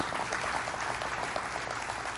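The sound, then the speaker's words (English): A large audience at a church service claps steadily and continuously, a dense, even wash of applause that holds at a constant level throughout, with no voices standing out. “Let me applaud you, okay? I applaud you.”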